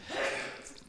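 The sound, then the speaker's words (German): A single sneeze, a breathy burst of air that swells quickly and trails off over less than a second, with no talking. “Gesundheit.”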